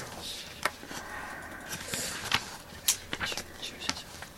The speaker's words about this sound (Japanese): なんか、後ろからささやきが聞こえたぞ。